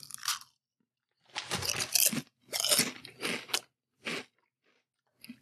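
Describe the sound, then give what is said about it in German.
Loud, crackly crunching of barbecue potato chips from a bag being chewed, coming in several bursts with short pauses between, no voices. “Ich habe ja noch so eine Tüte Barbecue-Chips liegen.”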